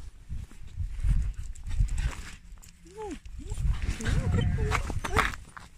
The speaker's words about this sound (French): Eh, c'est un troupeau de moutons. Oula, il y a un chien qui me fonce dessus.